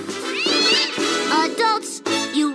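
A series of loud cat meows, several drawn-out cries with rising and falling pitch following one another in quick succession, with no talking.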